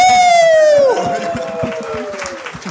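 A live crowd claps and cheers, opening with a loud, sliding whistle that drops in pitch before the scattered applause carries on steadily.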